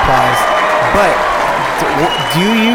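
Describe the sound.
Steady, dense applause runs for a few seconds at a constant, fairly loud level, with voices calling or talking over the clapping throughout.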